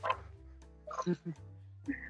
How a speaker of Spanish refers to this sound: ¿Qué sonaba un eco? Ahora suena un perro.